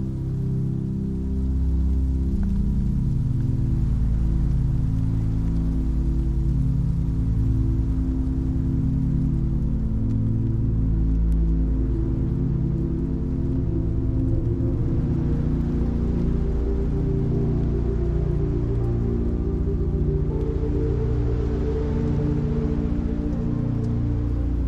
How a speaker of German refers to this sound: Der Regen beginnt nach einer Weile nachzulassen.